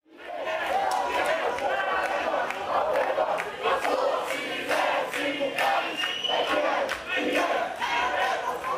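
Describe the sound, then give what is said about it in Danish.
A large crowd roars with sustained booing and angry shouting at a woman speaker in 2019, calling her ugly names; loud, many overlapping voices jeering continuously without pause. “Men da hun var der i 2019, der blev hun jo kaldt øh, øh, grimme ting og blev buet ud, og øh, det var voldsomt.”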